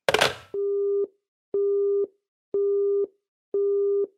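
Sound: telephone tone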